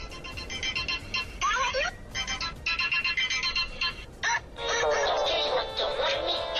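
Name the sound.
telephone ringing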